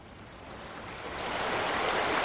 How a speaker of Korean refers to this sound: 야 얼음장 밑으로 물이 흐르다가 이제 얼음이 다 녹고 시냇물이 본격적으로 흐르겠죠.